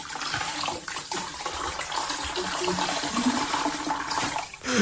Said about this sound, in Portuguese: Eu uh, tenho quase a certeza que é uma esfregona a ser espremida. Uma esfregona, será esse o detalhe que nos faltava aqui? Será esse?